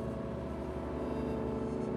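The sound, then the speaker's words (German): A car engine hums steadily from inside the vehicle as it drives up a mountain road to an alpine pasture at 1,160 metres, a constant low rumble with a droning tone, with no voices heard. “Da die Zeit aber knapp ist, fahren wir mit dem Auto hoch, ernten böse Blicke der Wanderer.”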